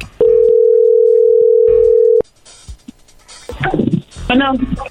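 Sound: telephone call being dialed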